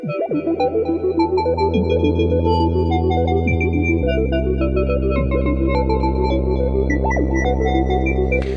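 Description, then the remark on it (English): A modular synthesizer sequence plays with all its parts together: a steady, loud bass drone that shifts pitch midway, layered with bright, sequenced melodic notes and a hazy, reverberant shimmer. “And all to everything all together sounds like this.”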